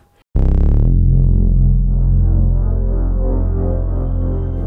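After a brief quiet moment, loud, deep subwoofer bass from a car audio system kicks in suddenly and keeps throbbing heavily without a break, powerful, filling the space with low rumble.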